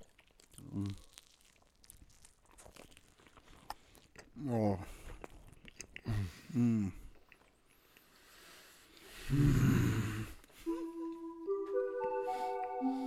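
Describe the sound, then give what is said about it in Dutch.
Biting and crunchy chewing of a chocolate marshmallow cake, a marshmallow coated in milk chocolate on a crunchy base, with sharp crackly bursts and brief murmured vocal sounds, followed by a sustained tonal hum near the end. “een mellowcakeje weg... Melk, chocolade of oh, marshmallow omgeven met melk, chocolade mm. en een krokante bodem.”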